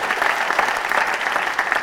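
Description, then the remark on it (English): Sustained applause from a live audience at the Duchess, applauding the venue staff who made the evening possible. Many hands clap together in a dense, steady patter that fills the whole moment without any break. “please round of applause for everyone here at the, uh, who works at the Duchess tonight, uh, who made tonight possible, everyone who works at Avalon.”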